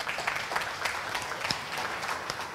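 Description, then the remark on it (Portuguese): An audience at a church service claps steadily together for Jesus, a dense, continuous patter of many hands at moderate loudness, with no voices standing out. “Vamos aplaudir Jesus.”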